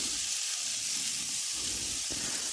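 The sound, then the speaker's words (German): Duck legs sizzle steadily as they roast and brown in a hot pan, a dense, continuous crackling hiss with small pops, holding an even level for the whole stretch with no voices. “Da lassen wir jetzt ganz gemütlich die Entenkeulen erstmal rösten.”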